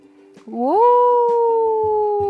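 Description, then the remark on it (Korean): A young wolf's howl from the mountain across the way: one long, high-pitched cry that slides upward and then holds steady, loud and unbroken, with a few soft low thumps underneath. “건너편 산에서 폴리와 비슷한 울음소리가 들려왔어요.”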